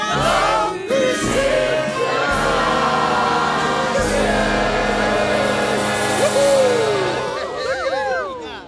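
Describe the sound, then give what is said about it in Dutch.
A large crowd gathered at the town hall steps in Duikelen sings together loudly in unison to thank Sinterklaas, many voices blending into a full, sustained chorus with steady rhythm and swelling phrases. “Als we hard genoeg zingen, dan hoort hij ons vast.”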